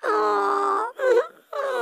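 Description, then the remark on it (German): A voice wails and cries in long, loud, sustained tones, breaking into three drawn-out bursts with short gaps between them, unaccompanied. “Und oh, hm, nicht weinen, jetzt komm, war nicht so gemeint, hm?”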